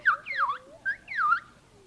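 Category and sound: bird, bird squawking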